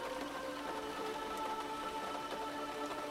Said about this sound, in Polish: Na dworze padał deszcz i wiał silny wiatr.